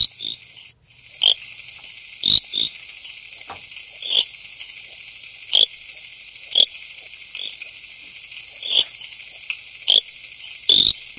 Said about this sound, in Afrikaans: Kom ons luister bietjie. Hoe klink Pickersgill se rietpadda?